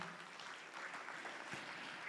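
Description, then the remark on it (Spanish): A church audience claps for the King steadily for a couple of seconds, a dense, even wash of many hands applauding together at a moderate volume, with no voices standing out. “Estamos, dele palmas al Rey.”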